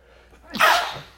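A single sharp, fairly loud sneeze, with a quick breathy intake leading into a bright burst that fades out within a second.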